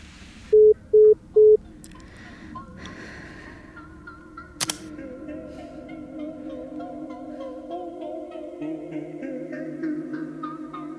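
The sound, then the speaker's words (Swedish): Three short, loud electronic telephone beeps sound in quick succession, then a click and a steady, buzzing tonal telephone line sound that continues quietly to the end. “Då ringer jag dem.”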